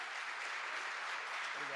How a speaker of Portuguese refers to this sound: Uma salva de palmas, irmão.